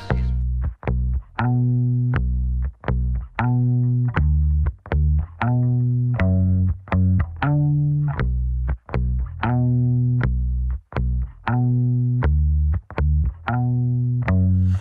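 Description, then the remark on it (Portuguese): Electronic music by a German band from Berlin, with loud, sustained synth chords chopped into a steady rhythmic pulse, brief dropouts between phrases, and no vocals. “E a gente começa já com o som elétrico de uma banda alemã que vem lá de Berlim”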